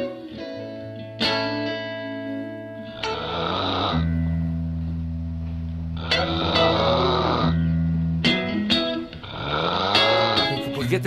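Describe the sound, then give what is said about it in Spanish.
Loud, rasping snores come in a handful of drawn-out, rumbling bursts over a steady low drone, with a harsh, distorted, almost processed quality and no talking. “pones a roncar, hombre.”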